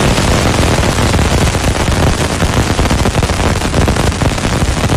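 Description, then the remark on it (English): Recording of the Cassini space probe flying through Saturn's rings: a loud, unbroken storm of rapid crackling and popping impacts, like dense static or hail, filling all five seconds with no voices. “That is the sound of the Cassini space probe.”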